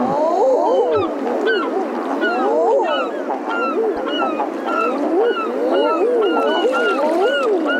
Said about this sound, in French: Euh, Shetland Islands. Les îles Shetland. Mon Dieu, c'est quoi ce son-là? Des baleines?